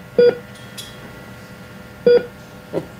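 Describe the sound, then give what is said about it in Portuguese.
A mobile phone gives short electronic beeps as it is plugged into a wall socket to charge: two clear tones about two seconds apart, then a softer third, against a quiet background. “Minha querida, deixa-me só carregar o telefone aqui na sua ficha.”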